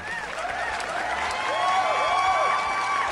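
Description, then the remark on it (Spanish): Steady applause from a crowd runs throughout at a fairly strong level, dense and continuous, with some high wavering whistles rising over the clapping. “Hoy tenemos lado C, así que fuerte ese aplauso.”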